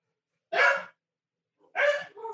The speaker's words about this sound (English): of course, my dogs are barking. There, there's no way to not acknowledge that my dogs are barking right now.